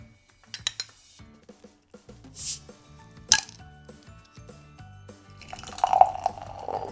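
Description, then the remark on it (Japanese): Golden ale is poured into a glass with small clinks and drips, a brief hiss of liquid midway, and a frothy, fizzing pour swelling near the end. No one speaks. “はいついでみました色はですね、まあ、ちょっとね濁ってますかねで暗めのゴールドといった感じでしょうか”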